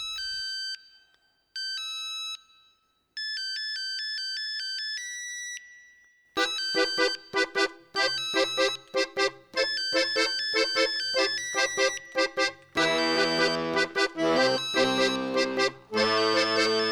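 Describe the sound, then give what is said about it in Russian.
The melody from the film Boomer plays as a ringtone on the keypad of an old mobile phone, in short, bright electronic beeping notes, then swells into a fuller, faster electronic tune with a bass line, loud, with no voices. “Это своеобразный гимн уходящим 90-м, спетый на клавиатуре до потопного сотового телефона.”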